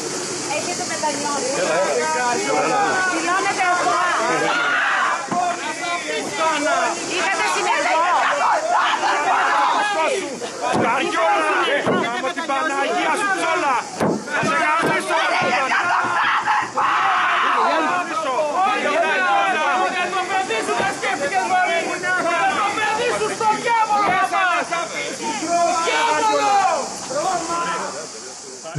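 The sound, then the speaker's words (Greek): An angry crowd of relatives and friends of the murdered Thanasis Lambrou boos, shouts insults and threats at a woman arriving at the courts in Nafplio, Greece, in a steady, loud din of overlapping voices. Hostile yelling surges and dips throughout without a pause, backed by a constant hiss. “Κατά την άφηξή τη, οι συγγενεί και φίλοι του δολοφονημένου Θανάση Λάμπρου την υποδέχτηκαν με αποδοκιμασίε, βρισιέ και απειλέ.”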